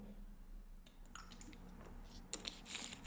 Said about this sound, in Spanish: pero primero un, un sorbito de agua.